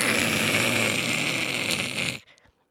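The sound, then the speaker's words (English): A voice imitates a hot air balloon burner with a loud, steady breathy roar lasting about two seconds, then cutting off abruptly into near silence. “And it was so weird because it'd be really quiet. And then all of a sudden, the burner.”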